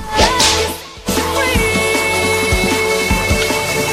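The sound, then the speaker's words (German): A sharp, whip-like crack snaps in after a brief lull, set against a loud, sustained tonal backdrop with a steady low thumping beat. No one speaks. “Peitsche, mach nochmal Peitsche”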